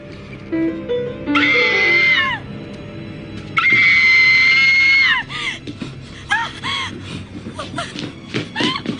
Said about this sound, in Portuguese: No caso do filme, tem um dos filmes do X-Men que você faz um grito com, com a vampira.